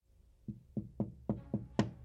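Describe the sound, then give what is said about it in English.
A series of six hollow knocks coming from a corridor taps out in a steady, fairly even rhythm, the last one sharper and louder, with no voices around them in an otherwise quiet space. “This time, the tapping came from the corridor, and they saw the same shadowy figure.”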